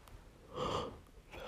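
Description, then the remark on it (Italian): A woman gives a single drawn-out yawn, breathy, swelling to a voiced peak before trailing off into soft exhaled breath, with no talking. “non so perché sbadiglio.”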